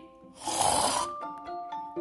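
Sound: imitated snoring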